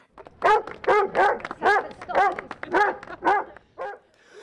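A dog, Samson, lets out a quick run of about nine short, high-pitched barks mixed with whiny yelps, fairly loud, with no other sounds around it.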